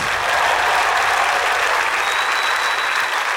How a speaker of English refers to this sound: If you're happy, you know it, clap your hands.